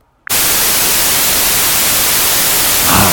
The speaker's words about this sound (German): Ich nehme jetzt hier mal White Noise, weißes Rauschen.